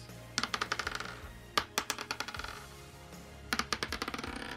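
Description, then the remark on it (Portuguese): Dice, including a four-sided D4, are rolled in a tabletop role-playing game, clattering across a hard surface in three quick bursts, each a rapid series of sharp, bright clicks that tumble and fade, with no talking over them. “A Vel tem um D4 mais 2, rolou 5.”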